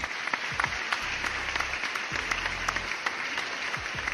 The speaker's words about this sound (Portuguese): Palmas, palmas, palmas. Palmas, palmas, palmas pra eles. Vamos bater palmas agora pra eles. Editor, palmas, palmas aí.